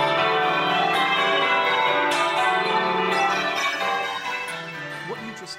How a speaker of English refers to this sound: is called change ringing. It's a really particular style of bell ringing that developed in England sometime in the 17th century.